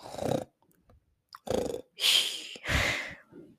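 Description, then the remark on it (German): A person makes beatbox snort-bass sounds: four raspy inhaled snorts resembling snoring, each about half a second long, separated by short pauses, with no talking. “Die Snort Base, würde ich einfach mal sagen.”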